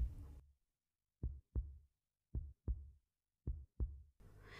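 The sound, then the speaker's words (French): A steady heartbeat: three low, muffled double thumps in a regular lub-dub rhythm, heard alone in silence between brief bursts of other noise at the start and end. “C'était les battements de son cœur qu'il confondait avec un bruit extérieur.”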